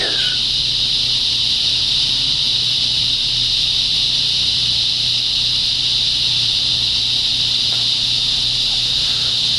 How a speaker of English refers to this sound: People don't have their air conditioners running. You don't hear any cars going. And I did have one neighbor running his generator, but something happened and it's not running anymore. But then you get rid of all of that stuff and you get the cicada.